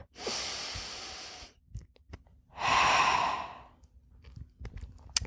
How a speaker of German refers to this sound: Ich setze mich hin und nehme einen Atemzug.